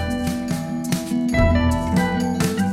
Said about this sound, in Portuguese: compôs a trilha sonora original que você está ouvindo aí.